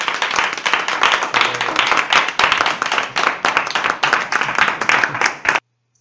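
Steady applause from a group, a strong round of applause dedicated to the students, dense overlapping hand claps at a constant loud level for about five seconds, then stopping abruptly into silence.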